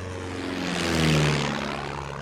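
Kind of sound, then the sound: vehicle, airplane flying overhead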